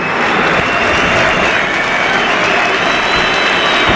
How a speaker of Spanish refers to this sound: Aplausos para ambos dos jugadores que se retiran a la vez del terreno de juego y entran Rubén García y Quique García